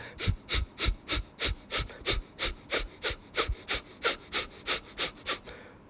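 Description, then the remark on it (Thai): A rapid, steady series of short, forceful nasal exhalations, about three per second, each a sharp breathy puff, fairly loud and continuing evenly for several seconds with no talking, done as a breathing exercise in rounds of 20 breaths. “หายใจเข้าแล้วแต่เลยนะไม่ไม่อันนี้ไม่ได้กำหนดเลยนะครับว่าจะหายใจเข้าเท่าไหร่ แต่ให้ใช้การหายใจออกเป็นเป็นสั้นๆ เป็นจังหวะสั้นๆนะครับ ทางจมูกนะครับ”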